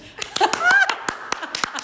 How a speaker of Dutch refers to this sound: Nou krijg ik een applaus.